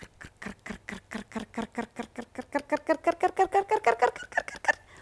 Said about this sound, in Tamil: இப்படி கடிச்சுதா பெரிய ஓட்டையாயிடுத்து அந்த வலை